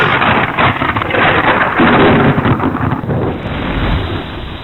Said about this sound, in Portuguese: Quando um raio repartiu o céu e um trovão horroroso estrondou em algum canto da cidade